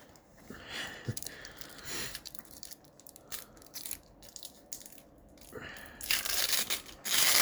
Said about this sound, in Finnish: Tää The Candy. No repääsä siitä nyt sellainen miehekäs pala. Repääs näin tästä nyt.